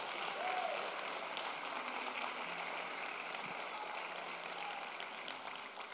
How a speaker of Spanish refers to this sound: Alguien le da un aplauso al Señor.